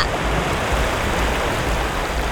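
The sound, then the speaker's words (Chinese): The water of a big, wide river rushes and roars steadily for the whole clip. It is a dense, even hiss with a low rumble underneath and no pauses. No one speaks. “这时，冒出了一条好大好宽的河流。滚滚的河水，谁都没有办法穿越。”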